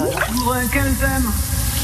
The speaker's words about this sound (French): un chanteur chante sous sa douche. un, chanteur français, mais on pose même pas la question de savoir si vous le connaissez. Vous ne connaissez que lui. Écoutez.